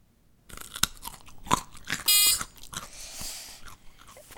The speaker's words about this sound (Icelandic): maður er að borða gullrót Já! Vel gert! Það er einmitt mjög ákveði hljóð sem fylgir því að borða gullrót sko.